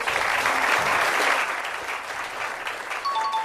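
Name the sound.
applause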